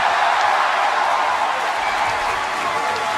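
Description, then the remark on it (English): A wrestling crowd roars and claps in a steady, dense wash of noise, loud and unbroken for the full few seconds, with cheers and applause blending into one continuous swell, reacting to a rematch challenge involving Hangman Adam Page. “Whoa and that crowd responds is genuinely like, "Oh shit, this is where we're going,"”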